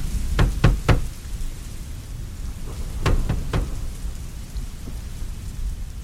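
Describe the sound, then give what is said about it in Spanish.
Two sets of three firm, resonant knocks on a wide closed door in Seville, made by two men arriving at a party, separated by a short pause, with steady rain pattering in the background. “Ahora es cuando llamamos a la puerta.”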